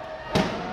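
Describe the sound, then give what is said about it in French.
A single sharp, loud crash of wheelchair rugby chairs colliding as athletes hit each other in a four-against-four match on a basketball court at Carpentier cuts through a steady hum of ambience, then fades quickly back into the background noise. “Oui, ça c'est le bruit des percussions, des chocs entre les athlètes.”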